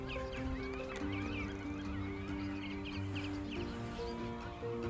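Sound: black-tailed godwit calling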